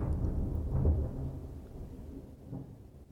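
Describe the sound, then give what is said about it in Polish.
A low, rolling rumble of thunder from a storm still far away swells and fades over a few seconds, deep and muffled, with no voices over it. “To daleko ta burza jeszcze jest.”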